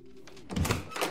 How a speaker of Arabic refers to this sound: بفتح عيوني على صوت باب عم ينفتح